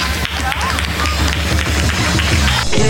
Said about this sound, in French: voilà, sous les applaudissements de tout ce public venu nombreux